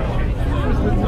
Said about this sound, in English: That sound is the hubbub of an awful lot of slightly excited people who, just like me, have boarded the P&O Ferries Pride of Canterbury.